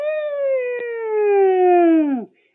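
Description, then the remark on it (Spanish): A single ambulance siren wail, loud and steady, slowly sliding down in pitch for about two seconds before dropping off sharply and cutting out, with no talking over it. “te escuchamos, siempre que te escuchamos, estás hablando y está la ambulancia atrás.”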